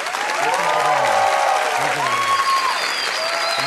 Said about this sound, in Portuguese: Vamos receber com o nosso aplauso doutor Augusto Cury.